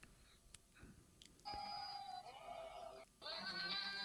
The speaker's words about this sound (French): Alors, c'est cette fameuse vidéo euh, avec le générique de Game of Thrones et que des chèvres. Tout à fait, c'est le générique de Game of Thrones repris par des chèvres